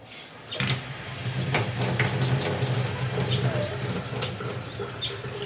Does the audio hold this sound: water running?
yes